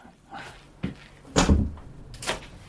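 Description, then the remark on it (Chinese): A door at home being opened: a sharp click, then a louder clunk with a low thud, followed by a brief rattling scrape. No voices are heard. “你等着，我给你开门去。”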